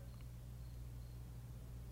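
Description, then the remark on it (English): A faint, high-pitched cricket chirps intermittently in a basement over a steady low electrical hum, with no one talking. “what the hell's that cricket coming yeah, from?”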